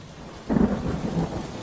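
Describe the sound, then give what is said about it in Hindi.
Torrential rain pours steadily in a storm while a deep roll of thunder rumbles in about half a second, swelling loud and broad before fading back under the constant downpour. “एक दिन बहुत मूसलाधार बारिश हो रही थी”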